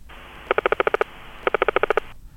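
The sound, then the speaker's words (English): Clownfish clicking their teeth: two quick bursts of about eight sharp, buzzy clicks each, fired in rapid even succession over a steady background hiss, with a short pause between the bursts. “Sounds like a stun gun. That's their teeth.”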